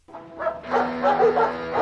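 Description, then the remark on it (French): Dogs barking in quick, overlapping bursts that grow louder and more continuous after a brief start, with no one talking, as a T600 has just arrived. “Ah putain, je dois encore te laisser et tout, on a un T600 qui vient de débarquer dans les chiens ils aboient.”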